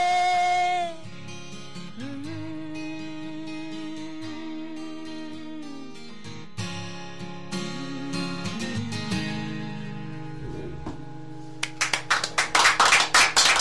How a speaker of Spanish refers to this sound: Ahí estaban los aplausos de la gente que presenció la canción, una verdadera pasada y un verdadero placer recordar a este grupo